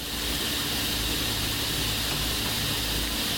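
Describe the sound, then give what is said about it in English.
A coastal lyric cicada (lyricen virescens) buzzes loudly and without a break, a steady high, grinding drone like an angle grinder steadily grinding a slightly uneven surface, sounding close by and filling the whole stretch with no other sounds. “Coastal lyric cicada.”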